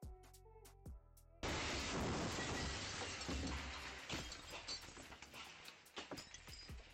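After a quiet tonal lead-in, a sudden loud blast erupts as an explosion blows out the entrance of a house in Hässelby, western Stockholm, in March 2023, followed by several seconds of crashing debris and shattering glass that slowly thins out into scattered clatters.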